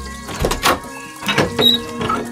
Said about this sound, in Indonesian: Dan nenek baik hati membukakan pintu.